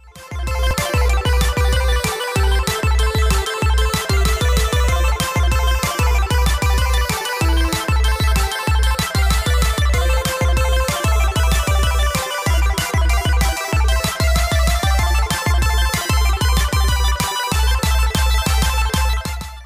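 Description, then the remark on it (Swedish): An upbeat electronic intro jingle plays loud and alone for about twenty seconds, with a bright synth melody over a steady, thumping beat and no voices. “Så vi gör så här, vi kör igång gingen”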